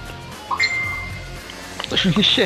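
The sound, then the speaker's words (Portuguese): A microwave oven beeps once with a clear, steady electronic tone lasting under a second, moderately loud, signaling that the food inside is ready, then voices start talking. “Ficou foi, pronto foi, a comida foi. no micro-ondas.”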